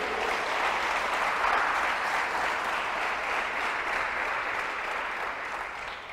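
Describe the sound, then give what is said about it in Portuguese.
Sustained applause from an audience, a dense, steady wash of many hands clapping at an even loudness for several seconds before easing slightly toward the end, with no voices over it. “Dá um aplauso às, um aplauso às mães que são do lar aí.”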